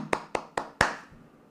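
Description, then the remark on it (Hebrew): Four sharp hand claps in a slow, even rhythm, fairly loud, with the last clap ringing out slightly longer. No voices accompany them. “וואו, מחיאות כפיים.”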